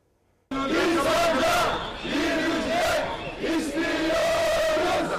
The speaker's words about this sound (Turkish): Sadaka değil insanca yaşatacak bir maaş zammı istiyoruz demiş. Milyonlar adına sokağa çıkan işçiler İzmir'de böyle haykırdılar.